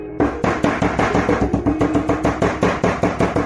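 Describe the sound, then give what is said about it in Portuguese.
Rapid, frantic knocking by a panicked man arriving home at the door of his house, a steady barrage of loud, sharp thuds repeating several times a second with no pause and no voices. “Chegando em casa, bateu desesperado na porta.”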